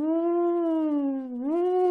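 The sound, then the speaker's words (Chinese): A voice imitates a howling whirlwind with one long, steady, loud 'woo' that sags slowly in pitch, then lifts again just before the end. “这风声不对，仔细一想，哎呀，这是旋风。”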